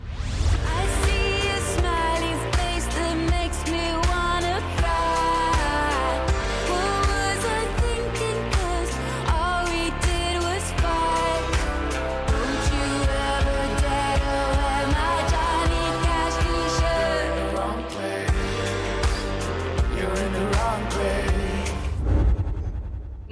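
A pop song plays continuously at a steady, full level, with a female lead vocal singing over a dense band arrangement of bass, drums and sustained melodic layers.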